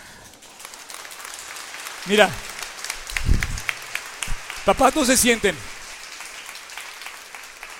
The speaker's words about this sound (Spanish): Se pueden poner de pie los papás, papás que quieran poner el ejemplo en su casa para orar en familia. Gracias a Dios. Yo creo que se merecen un aplauso, ¿no?